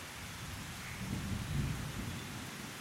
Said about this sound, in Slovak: Takže kým budeš počúvať, ako prší